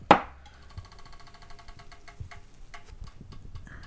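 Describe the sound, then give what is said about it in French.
A sharp contact tap followed by a soft, crisp crackling of a hot tool pressed on damp material, faint irregular pops under a steady high whine, close by with no talking. “Des fois, tu entends le petit bruit croustillant.”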